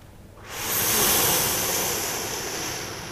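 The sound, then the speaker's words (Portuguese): After a brief hush, a broad wash of ocean surf swells in and holds steady, a loud, hissing roar of breaking waves with no talking over it. “Podes continuar aí a fazer o som do mar?”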